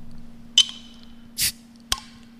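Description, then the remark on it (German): A glass bottle of water is pried open with a bottle opener: a metallic clink, a short breathy hiss of escaping gas, then a sharp tick of the cap, with no talking. “ich habe noch kein Wasser aufgemacht, warte.”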